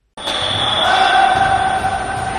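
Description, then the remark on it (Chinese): Volleyball practice at the training ground of Turkey's VakıfBank club, where Zhu Ting and her teammates train spiking, passing and blocking: dull ball thumps land irregularly over a steady, loud wash of indoor noise with faint high squeaks and hum, and no clear voices. “这里是朱婷效力的土耳其瓦吉弗银行俱乐部的训练场。为了准备下一场比赛，朱婷与队友们正在认真训练扣球、一传、拦网。”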